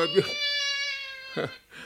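A cat lets out a long, drawn-out whining meow that holds a steady, nasal pitch for about a second, fairly clear, with short rough vocal sounds just before and after it.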